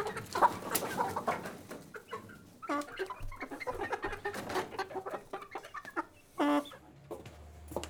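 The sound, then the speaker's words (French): Hens cluck busily, a dense run of short, overlapping clucks and squawks with one louder drawn-out call near the end, no talking. “Ah, on fait plutôt du jardinage et qu'on tu des poules.”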